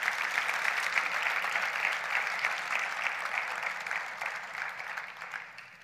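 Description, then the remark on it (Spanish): An audience applauds steadily, a dense wash of many hands clapping at an even level for several seconds before thinning slightly toward the end. No voices stand out. “Podemos darle otro aplauso a Jesús por eso.”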